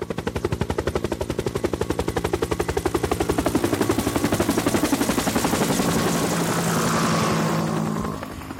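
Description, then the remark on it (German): A helicopter passes overhead above a valley, its rapid rotor chop thudding steadily as it grows louder, holds for several seconds, then begins to fade. No one speaks. “Ab und zu ist ein Helikopter zu hören und zeitweise zu sehen.”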